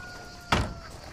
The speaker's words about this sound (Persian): شیرزاد در ماشین رو باز میکنه توفنگ رو بر میداره